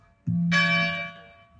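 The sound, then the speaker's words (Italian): A single deep church bell strike rings out, its low hum and bright shimmering overtones swelling briefly then slowly fading, with no voices present. “E allora capite che appunto questo suono delle campane lo sentivano i nostri antenati nell'anno 1000 e lo sentivano i nostri antenati nell'anno 500 d.C.”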